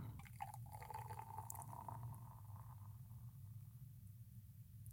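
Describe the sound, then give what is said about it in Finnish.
Sparkling wine is topped up into a person's glass, a steady low gurgle with a rising tone and fizzy, crackling bubbles over about five seconds, no talking. “Ja mä voisin nyt hieman laittaa lisää tätä kuohuviiniä sinne sun lasiin.”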